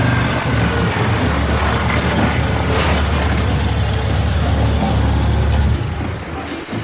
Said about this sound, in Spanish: Mientras en el aparcamiento de la playa, Román está orinando junto a un coche y ve llegar una furgoneta que aparca junto a él.